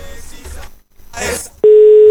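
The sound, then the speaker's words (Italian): Brief talk and a rustle give way to a loud, steady telephone ringing tone on the line during a prank phone call, a single unbroken electronic beep that holds to the end. “Sta squillando, sta squillando, signore.”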